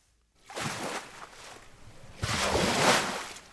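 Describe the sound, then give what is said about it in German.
Artificial waves in a huge laboratory hall at the Technical University of Braunschweig surge and crash against a sand dune in two broad bursts of rushing water, loud, with a hissing wash in between and no voices. “In einer riesigen Werkshalle nagen kräftige Wellen an der Düne Marlins Knoll.”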